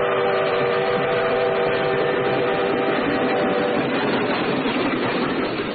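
A passing train rumbles loudly and steadily for several seconds, a sustained tonal whistle sounding over the dense mechanical roar throughout, with no voices.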